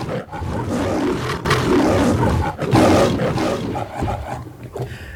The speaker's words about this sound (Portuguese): e para fazer sentido com o filme, ele precisava começar exatamente no terceiro rugido do leão que aparece na abertura do filme.